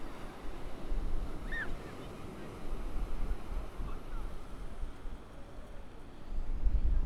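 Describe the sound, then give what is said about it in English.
A continuous rushing roar of Atlantic Ocean waves breaking along the shore at Foz do Douro in Porto, where the Douro River meets the ocean. Heavy and swelling louder toward the end, with wind buffeting the microphone and a brief faint chirp early on, late on a Sunday under a moody sky. “We're at Foz de Douro, which is the point where the Douro River mingles with the Atlantic Ocean.”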